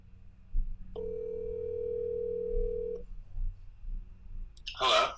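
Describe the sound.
A steady telephone dial tone hums for about two seconds over a low background rumble as a call is placed to a medical expert, then cuts off, followed by a short burst of voice near the end.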